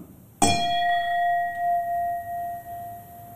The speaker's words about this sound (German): Also wir haben ja schon mal im Glas. Ja. Moment, wir stoßen mal an.